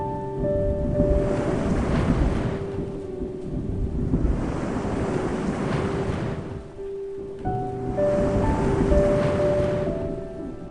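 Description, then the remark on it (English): Stormy ocean waves surge and crash in repeated loud swells every few seconds over a constant low roar, with a faint steady hum running underneath. “He, he watched the waves crash like a chaotic symphony.”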